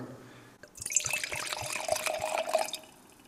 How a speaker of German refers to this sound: Und jetzt machen wir gleich mal den ersten Wein auf. Das ist ein Ehrenhausen Muschelkalk. Wir verwenden Glasverschlüsse. Das macht ein bisschen anderes Geräusch, wie das Öffnen mit dem Kork.